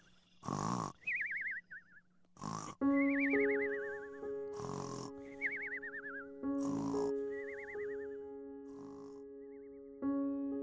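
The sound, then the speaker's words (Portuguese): An old man snores loudly in a cartoonish way, about five times at a steady pace: each rough, rattling snort is followed by a wavering whistle, over a sustained background tone with no talking. “começou a roncar, tá roncando alto pra caramba.”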